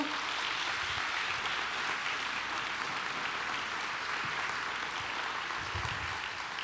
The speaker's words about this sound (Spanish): Yo creo que si, si me estás entendiendo, puedes darle un aplauso a Dios porque Él es bueno.